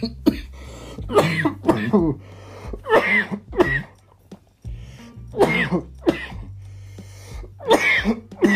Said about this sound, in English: That's why I don't want to hit the blinker. Because I'm about to cough up a lung and die. Whew. Yeah, see, even got me fucking like running nose and shit. How much coughing?